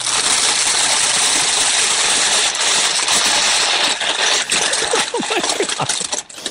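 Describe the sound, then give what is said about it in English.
A compostable chip bag, held up and handled by a man, crinkles very loudly, a dense, harsh crackling roar of rustling plastic that stays intense throughout, with sharper snaps and crackles near the end. “I found the very video that I remember seeing of a guy holding up the chips, saying, like, listen to this bag.”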